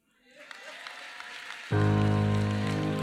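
A crowd's clapping swells from silence into a steady, dense patter, then a loud sustained low keyboard or organ chord enters and holds beneath the continuing applause.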